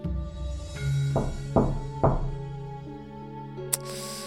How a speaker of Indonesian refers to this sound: Siapa sih yang iseng ngetuk-ngetuk kamar gak jelas? Aku jadi agak merinding dan ketakutan, tapi berusaha meyakinkan diri bahwa mungkin saja suara ketukan tadi hanya halusinasiku semata.